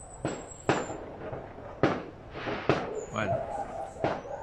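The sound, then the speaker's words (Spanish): Sharp booming cracks of gunshots or firework-like explosions set off by drug traffickers celebrating an arrival, about six of them at irregular intervals, echoing outdoors over a low background murmur. “si escuchan explosiones, estos son los imbéciles de los narcotraficantes que están celebrando alguna llegada de algo. ¿Se escuchan esos disparos?”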